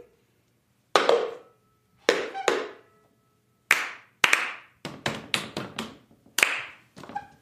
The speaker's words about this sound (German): Klatsch, klatsch, da, da, da, klatsch und rüber. Klatsch. Jetzt so.